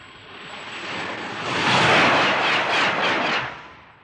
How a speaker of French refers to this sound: Et aussi, qui dit électrique dit moins bruyant. Ça, c'est le bruit du TGV en 1972.